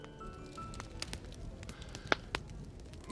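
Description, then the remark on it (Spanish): A fire in a large fireplace crackles steadily, with irregular small pops and snaps over a soft rushing bed, and a couple of sharper, louder cracks standing out toward the end. “Y entonces me invitaron a pasar a una sala contigua junto a una gran chimenea”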